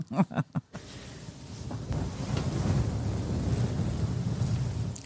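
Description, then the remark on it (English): A short burst of voice opens, then a muffled rubbing and brushing against the microphone, as ASMR head pets, takes over, a steady low rumble with soft scratchy texture that continues for several seconds. “I'll give you, give you some nice pets now.”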